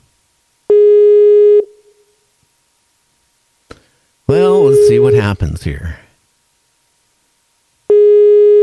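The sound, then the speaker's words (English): A telephone busy signal after a dropped phone call sounds in loud, steady on-off bursts, one of them overlapping a man briefly speaking, with the flat electronic tone returning again at the end. “I, I think I broke the record here tonight of phone drops.”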